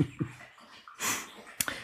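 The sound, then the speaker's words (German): A dog laps water in the background, drinking because it is thirsty: a few soft, wet slurping bursts, then a brief sharper splash near the end, with no one talking. “Das, was ihr gerade übrigens im Hintergrund hört, das Schlabbeln, das ist mein Hund, der gerade meint, er muss halt irgendwie da mal äh, mächtig ähm, zulegen.”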